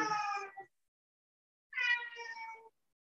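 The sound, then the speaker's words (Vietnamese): A cat meows twice, a drawn-out cry followed after a short silence by a second, longer wavering meow, with no voices present. “cho con mèo làm chị mất tập trung không”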